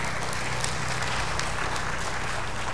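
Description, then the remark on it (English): An audience applauding together in a church, a steady wash of many hands clapping at an even, sustained level for the whole stretch, with no voices standing out, welcoming a new member into the church. “give your applause to welcome Barbara into our church”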